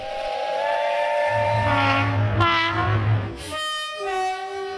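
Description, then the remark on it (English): A train horn blares in long, loud, sustained chords, joined midway by a deep rumbling of rolling wheels, then sounds again in a brighter, higher blast near the end. “So, without further ado, let's jump into the lame train.”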